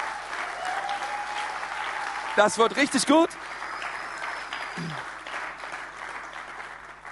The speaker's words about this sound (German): im Maritimhotel in Nürnberg, wo wir ab 14.02., wichtig, 14.02., nicht nächste Woche, ab dem 14.02. Ähm, Gottesdienst am Valentinstag Gottesdienst feiern werden, okay? Und, ähm, und das wollen wir, ist ein Applaus wert, oder?